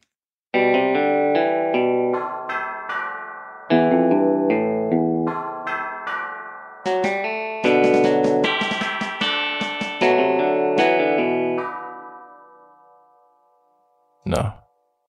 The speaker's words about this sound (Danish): et klokkespil og, øh, og lagt ind som sådan noget, det er sådan noget metal mod metal. Så det kan både lyde lidt ligesom, man slår med en hammer på noget metal nede i et skib, eller det kan lyde ligesom nogle kirkeklokker.